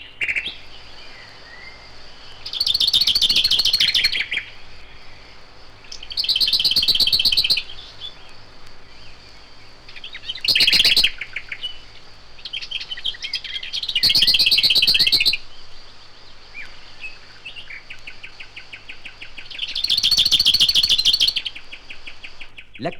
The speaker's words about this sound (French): la fauvette d'Abillarde reste cachée dans son fourré d'épines, mais son chant domine tout le canton.